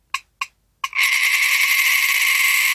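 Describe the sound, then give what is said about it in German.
Three sharp metallic clinks, then a rapid continuous whirring trill as a coin is rolled out and spins down on a hard surface, imitating a wood warbler's accelerating song. Bright and fairly loud, with no voices. “Also muss dazu, wir haben beide eine Münze und die wir so ausrollen lassen.”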